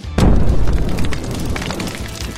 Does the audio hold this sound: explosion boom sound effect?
yes